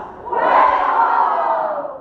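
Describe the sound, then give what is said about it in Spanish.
A crowd shouts loudly together in one sustained roar lasting about two seconds, a dense mass of raised voices that swells quickly and holds steady before easing slightly at the end. “si hubiera fuego en tu corazón, ¿cómo gritarías?”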